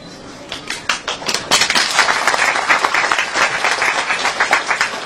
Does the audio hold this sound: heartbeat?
no